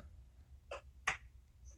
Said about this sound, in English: All right, there we go. Pick it up. that was like a little baby clap, but we'll take it. We'll take it.